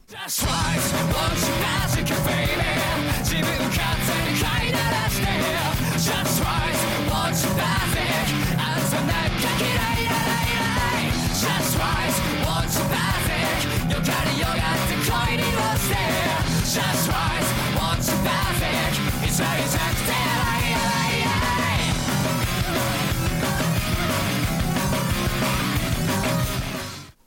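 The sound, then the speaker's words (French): A loud, dense rock band song plays steadily throughout, with driving drums, thick distorted guitars and a strained vocal line riding over the full mix. “Voilà, c'était … de …, un projet que tu affectionnes particulièrement.”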